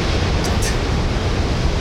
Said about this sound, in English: There is no bump music here. We're just gonna listen to the waves for the next, I don't know, 30 seconds, a minute or so. I'll fade it out.